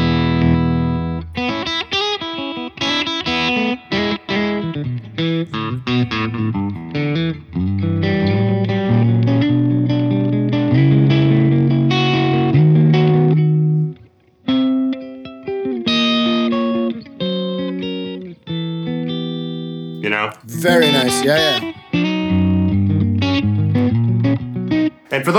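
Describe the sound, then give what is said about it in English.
An electric guitar plays loud, distorted riffs and sustained chords through a high-wattage, heavily effected amp, with a brief drop around fourteen seconds and a bright, noisy burst near twenty seconds. “playing through a high uh, high wattage amp, which I am doing”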